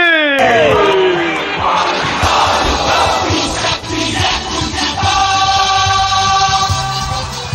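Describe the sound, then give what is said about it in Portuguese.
A packed football stadium erupts in a loud, sustained roar after Havertz scores a goal for Chelsea past goalkeeper Ederson. Shouts and whoops rise out of the dense crowd noise for the whole stretch. “A emoção do futebol, a explosão máximo, grito de gol!”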